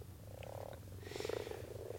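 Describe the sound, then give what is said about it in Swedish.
A common frog calls with a low, purring croak, a soft rapid series of grunting pulses that swells in the middle, heard over a faint background hum. “Ja, för det första så måste vi säga att det är vanlig groda som sjunger här, och det är ju ett fantastiskt ljud i våren som man kan lyssna till enkom eller när man är ute och lyssnar på kvällssjungande fåglar.”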